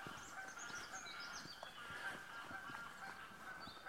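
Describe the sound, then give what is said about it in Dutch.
A flock of geese honk continuously, many overlapping calls forming a dense, noisy chorus, with no talking over it. “Nou, dan hoor je de ganzen weer.”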